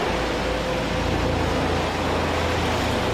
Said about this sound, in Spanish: Ya llegaron por nosotras. Pues. Ya llegaron. Está pasando el helicóptero.